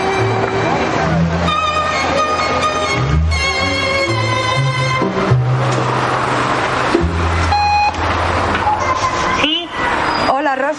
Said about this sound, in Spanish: Entra por una calle estrecha y aparca el coche en batería.